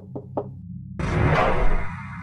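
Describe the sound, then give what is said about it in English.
Two quick, solid knocks on the door of a living unit, clear against near silence, followed a moment later by a louder, sustained wash of noise. “I knocked on the door.”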